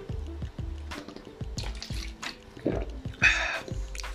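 Someone drinks a little water: a steady series of soft gulps and swallows roughly every half second, with small wet liquid noises and a brief splashy rustle near the end.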